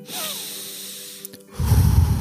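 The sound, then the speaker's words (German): A slow, deep breath drawn in through the nose with a faint nasal snuffle, followed by a louder, gusty exhale pushed out through the mouth. Alone, no talking. “du atmest tief durch die Nase ein und dann durch den Mund aus”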